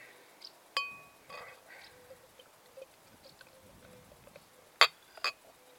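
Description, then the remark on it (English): A Wirral Beer Festival beer glass holding a golden APA clinks, first with a short ringing tone, then two sharper taps close together near the end, with faint handling noises in between and no talking. “And I am drinking out of my Wirral Beer Festival beer glass.”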